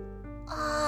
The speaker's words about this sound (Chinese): 妈妈讲了我最喜欢的故事，我打了个大大的哈欠。